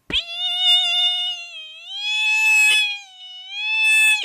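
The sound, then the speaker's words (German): A voice imitates a smoke alarm with a loud, drawn-out, high-pitched wail, rising and dipping in pitch across three sustained swells with barely any break between them. “Ich habe das ganz falsch vorgemacht. So geht definitiv nicht unser Feuermelder.”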